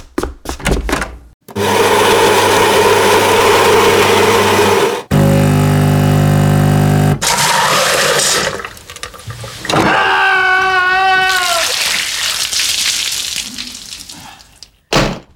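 A limescaled coffee machine in Berlin, where the water is very hard, runs loudly: a harsh grinding whir, then a droning pump hum, followed by hissing and sputtering gurgles as it labors to brew, with no one speaking.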